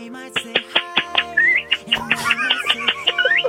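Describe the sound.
A person whistles and chirps with their mouth, imitating birdsong in a quick, lively series of trills, warbles and rising tweets, fairly loud, with no talking.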